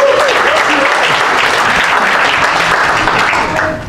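A crowd claps steadily and loudly for a few seconds, a dense crackle of many hands, with a few faint voices and a whistle-like tone mixed in before it begins to fade.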